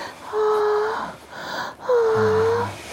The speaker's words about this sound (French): aujourd'hui, on va écouter le son de l'orgasme. Ou plutôt les sons de l'orgasme